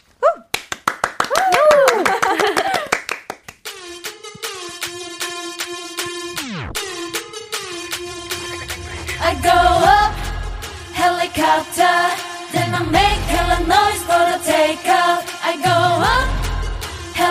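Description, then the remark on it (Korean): A pop song intro, performed live on a radio show, begins with rhythmic claps and vocal chants, then a steady synth tone and a sweeping downward effect before a heavy bass beat kicks in, loud. “그럼 저희 노래 들어볼게요.”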